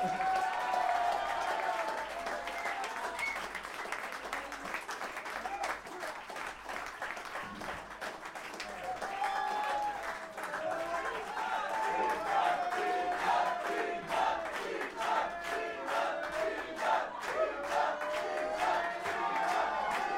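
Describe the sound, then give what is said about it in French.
An audience breaks into sustained, dense applause, hundreds of claps blurring into a steady roar, with whoops and cheering voices rising above it throughout, holding loud and even until the end. “Merci encore, applaudissez-vous, vous étiez merveilleux”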